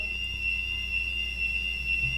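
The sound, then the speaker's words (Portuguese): A fire alarm sounds continuously with a steady, piercing high-pitched tone over a low background hum, with no one speaking. “Isso é um alarme de incêndio?”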